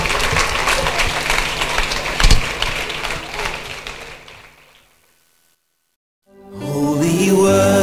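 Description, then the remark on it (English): A crowd claps steadily as a clap offering for several seconds, a dense wash of applause that gradually dies away into silence before a tonal voice or music comes in. “Is that a clap offering”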